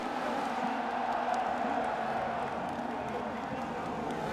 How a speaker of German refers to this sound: Zuvor sorgen die Fans von Max Verstappen für eine unglaubliche Stimmung in Spielberg. Die Wand in Oranje jubelt dem WM-Führenden und Polesetter zu und Verstappen hält auch nach dem Start seine Führung.